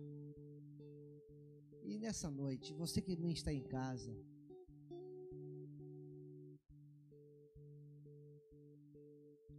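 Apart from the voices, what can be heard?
telephone ringing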